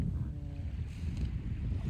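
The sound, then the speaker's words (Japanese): Steady low rumble of waves washing onto the beach shoreline at Yamanoshita Seaside Park, continuous, with wind buffeting the microphone throughout and no voices. “あ久しぶりにこの山の下海浜公園の波打ちまで来てみたんですけどぶっちゃけなんかもうちょっと汚い 印象があったんですけど今見たら意外と水は綺麗ですね”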